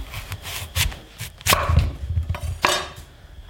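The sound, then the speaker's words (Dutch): A large knife chops celeriac into roughly equal cubes on a board: several sharp, crisp thunks at an uneven pace, a couple of them louder, over a low, steady background rumble. No one speaks. “ik snij eh, de knolselderij in een beetje gelijke blokken.”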